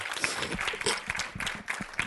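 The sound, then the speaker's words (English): An audience claps with dense, overlapping hand claps, a steady bright patter of applause that stays fairly loud throughout, with faint voices mixed in underneath. “I'll wait while you clap your hands there.”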